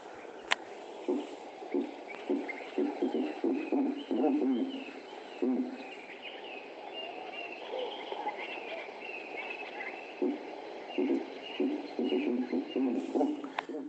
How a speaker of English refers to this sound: in other words, the giant eagle owl